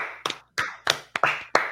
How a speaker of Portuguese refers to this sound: Mano, Palmas para Austin, hein? Austin.